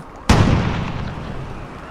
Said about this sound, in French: À 14h50, deux détonations font trembler la ville.